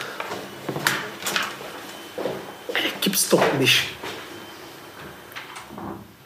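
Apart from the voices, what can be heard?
door being closed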